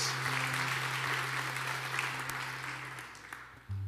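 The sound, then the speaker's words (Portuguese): A church audience applauds Jesus with dense, sustained clapping that holds steady and slowly tapers, accompanied by a low sustained hum, before a brief louder tone near the end. “Em nome de Jesus, aplauda ele, por favor.”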